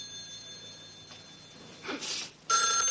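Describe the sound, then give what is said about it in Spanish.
A telephone in an office rings loudly in two bright, jangling bursts, the second louder and continuing to the end, over a faint steady hum, with no one speaking. “Frank se abalanza al teléfono en su despacho.”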